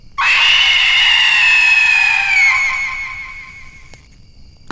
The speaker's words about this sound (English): did any of you hear a woman scream a minute ago?